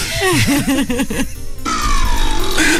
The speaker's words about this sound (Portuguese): Portanto, tive que pôr uh, uh, o arroto que tinha aqui no computador. Que é muito estranho, parece um laser, é assim. Parece um, um início de salto, tipo.